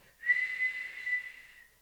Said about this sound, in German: Ich habe irgendwie kann ich nicht mehr so richtig pfeifen, weil mein Zahn hat sich verändert, meine Zahnstellung. Doch, ich kann auch pfeifen, aber nicht mehr so laut.